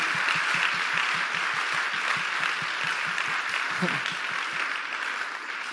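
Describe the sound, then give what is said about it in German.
Steady, dense applause from a large crowd at a church, many hands clapping at once in a continuous wash of sound without pause, with a faint voice briefly audible underneath. “lasst uns doch all diesen Leuten einen großen Applaus geben, weil ihr macht diese Church möglich.”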